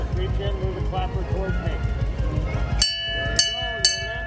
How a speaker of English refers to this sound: vehicle was built for the park in 1958 based on the 1960 American LaFrance Walt Disney himself used to drive Absolutely, I'd love to ring the bell.